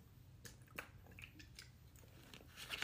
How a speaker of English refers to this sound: Ah, sorry, had to take a drink of the water.